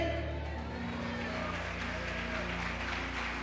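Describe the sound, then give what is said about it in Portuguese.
Steady applause from a large crowd, given in praise of God, a dense wash of clapping with a low sustained hum beneath it, continuing without pause. “A Ele que nós queremos a, aplausos para Ele.”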